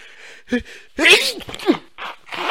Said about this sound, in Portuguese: Do nada me deu uma crise alérgica antes do programa. E meu olho tá zoadíssimo. Passei colírio, joguei soro fisiológico, tá, tá uma merda. E eu tô espirrando também.